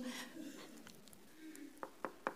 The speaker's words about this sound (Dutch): Oh, eh, moment. Er wordt aan de deur geklopt. Sorry.